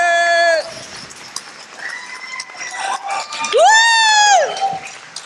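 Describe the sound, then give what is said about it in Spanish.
An audience claps and cheers loudly throughout to welcome Mila Montero at a show on a tour, with steady dense applause beneath high, drawn-out whoops and shouts that rise and fall, the loudest swelling near the end. “Recibamos con un fuerte aplauso a, Mila Montero.”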